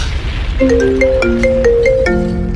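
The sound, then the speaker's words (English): A phone ringtone plays a short, stepping electronic melody of clear tonal notes, fairly loud, over a steady background hiss. “I sure you not gonna answer this phone you know.”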